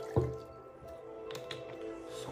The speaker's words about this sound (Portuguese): Deixa eu só colocar um pouquinho mais de água no copo.